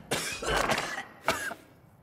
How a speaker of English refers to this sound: Second, a dry cough, like this.